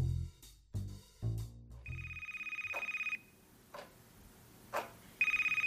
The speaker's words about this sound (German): Sie kann einfach kein Telefon klingen lassen. Es geht einfach nicht selbst wenn sie sich im Garten aufhält. Wenn das Telefon läutet, läuft sie los.